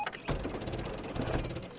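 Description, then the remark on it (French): An office printer starts up and runs, printing texts, with a steady mechanical whir and a rapid, regular clicking pulse throughout. No one speaks. “Bon, et c'est parti pour imprimer mes textes de la saison 6 sur cette imprimante de bureau.”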